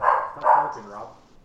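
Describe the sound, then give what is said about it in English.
A dog named Puddles barks at somebody twice in quick succession, sharp, mid-pitched woofs, followed by a softer trailing yelp as the sound fades out. “Um, I feel like what's oh, our do- dog's barking at somebody.”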